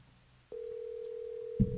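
A steady telephone dial tone switches on abruptly as a phone call is placed and hums at an even pitch, then a short burst of handset noise or clicking breaks in near the end.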